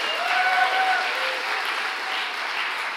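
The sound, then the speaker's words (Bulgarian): An audience claps steadily, a dense, even wash of many hands sustained at a fairly loud level throughout, with a faint tonal hum underneath early on and no speech over it. “О, ако ръкопляскаш, ръкопляскай, като ще вярваш.”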